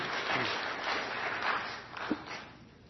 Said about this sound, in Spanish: Un aplauso acá también que nos acompaña.